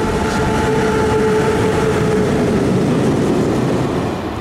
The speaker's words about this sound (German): das war auch ein ziemlich langer Zug.